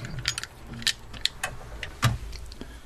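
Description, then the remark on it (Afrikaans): A pistol is tucked into a car's glove compartment: a quiet series of sharp metallic clicks and small clattering knocks spread irregularly over a few seconds, with no voices. “Ek bere die pistool in die paneelkussie.”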